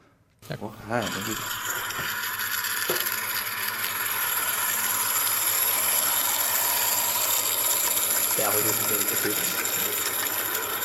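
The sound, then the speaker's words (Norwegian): A small model of a Welsh narrow-gauge railway train runs steadily with a continuous mechanical whir and high-pitched hum, loud throughout, while brief voices are heard near the start and again toward the end. “Det er altså modeller av walisisk smalspor jernbane.”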